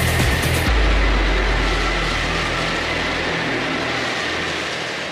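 A loud high-speed train roars past, a dense rumbling wash of rail noise with heavy low-end thunder that eases off slightly as it goes, with no voices.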